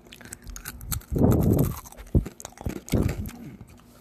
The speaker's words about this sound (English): I had to get a little snack, some pretzels.